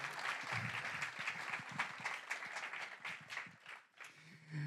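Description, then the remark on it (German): An audience at a church service on a hot summer morning applauds the band steadily for several seconds, a dense patter of many hands clapping, thinning briefly near the end before a low hum returns. “Lass uns ja noch mal einen Applaus geben.”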